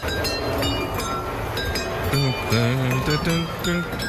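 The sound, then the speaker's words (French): A toy train rolls through a museum installation, striking a row of glasses and tapping out a bright, ringing melody from the opera Carmen in clinking glass notes in steady succession, with voices murmuring underneath. The installation uses 2,840 glasses along more than 210 metres. “Avec le petit train qui passe au milieu.”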